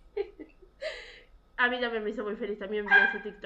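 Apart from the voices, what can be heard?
dog whining and barking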